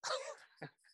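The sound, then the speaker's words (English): A puppy of two weeks in the home, trying to eat headphones, yips and barks in a few quick, high, sharp bursts, with a brief human laugh mixed in. “my dog is trying to eat my headphones”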